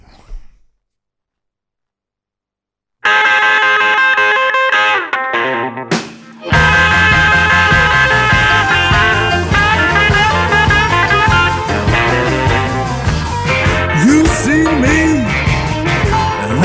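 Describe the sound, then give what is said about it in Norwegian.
A blues band song played on a radio show starts after a few seconds of silence, with loud, full electric instruments and a gritty, distorted guitar tone; no voice yet, just the band playing steadily. “Vi skal høre eh, låten først”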